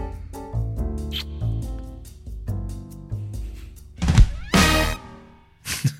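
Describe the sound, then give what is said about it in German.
A short tuneful jingle of plucked, bell-like notes ends in a loud, wet, smacking kiss, with a brief burst of noise just before it and a final soft smack. “ist immer wieder schön, der, der Kuss am Schluss. Der klingt so richtig feucht.”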